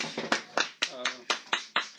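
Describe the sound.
Brisk, steady hand clapping to welcome a guest, about eight or nine sharp claps in quick even rhythm, with a voice briefly heard underneath partway through.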